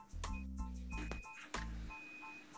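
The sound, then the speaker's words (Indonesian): Short electronic beeps from an incoming phone call repeat faintly over a low, buzzy background hum, with a couple of sharp clicks in between. “tadi ada telepon guys Sorry.”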